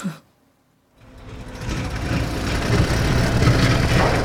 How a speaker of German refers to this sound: Brainy, was ist denn hier los? Das ist ja eine Großbaustelle.